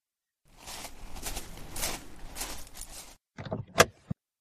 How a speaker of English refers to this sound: My keys were where I left them, and the Monte Carlo sounded like a tiger when I started her.